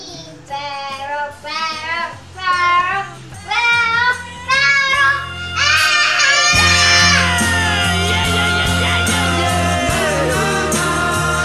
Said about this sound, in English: But my favorite part is when it gets loud in the song and he's he starts to like yell, better, better, ah! better, better.